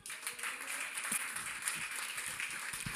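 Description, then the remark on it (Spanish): A church audience gives a loud round of applause for the King, a dense, steady crackle of many hands clapping together, sustained at an even level for the whole stretch with no voices over it. “Di conmigo, Dios no me ha dado espíritu de temor, sino de poder, de amor y dar un aplauso fuerte al rey.”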